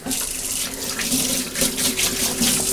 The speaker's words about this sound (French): Hop, hop, un petit peu d'eau froide.